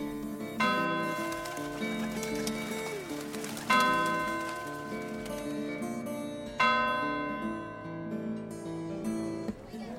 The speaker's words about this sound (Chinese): 听远处教堂的钟声，落日余晖，让人不舍时光。